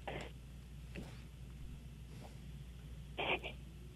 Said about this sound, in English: I'm sorry, you're cutting out. sorry. Uh, we can't hear you,